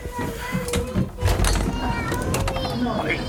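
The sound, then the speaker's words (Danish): An old train door is worked open with a few heavy mechanical clunks and rattles as passengers get off a train at Berlin's main station, while adults and children talk in the background of the busy, echoing station. “Det er sådan en gammel dør, Emil. Prøv lige at se, du skal gøre sådan her.”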